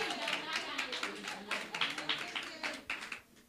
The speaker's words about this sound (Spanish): Si le van a dar fuerte el aplauso a Dios, háganlo, si no, nos vemos mal.